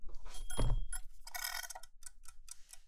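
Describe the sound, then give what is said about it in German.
A mechanical egg timer is wound with a soft thump and a brief metallic ring, then settles into a steady, rapid ticking at a moderate volume with no voices. “Ah, und hier die Eieruhr, damit es nicht zu lange wird.”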